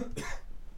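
A single short, husky cough bursts out, a brief rough blast of breath that quickly fades, with no talking around it.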